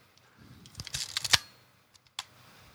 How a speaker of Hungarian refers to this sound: Na most akkor légy a mikrofonodba ezt, ezt a zajt, ezt indukáld már, mert egészen zseniális lehet azoknak a... A fényképező felhúzása, amikor a, a filmet arrébb tekerted, hogy tudjál fotózni.